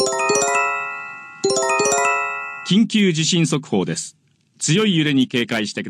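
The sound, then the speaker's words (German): An earthquake early warning alert tone, as broadcast on radio and television, plays twice: a quick cluster of bright electronic chimes that rings out and fades. A voice then speaks. “Im Radio und Fernsehen laufen Warntöne.”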